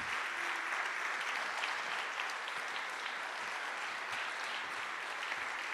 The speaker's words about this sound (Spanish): porque esta es la orquesta de Víctor Lavallén, que ya comenzamos a aplaudir y comenzamos a recibir a los maestros.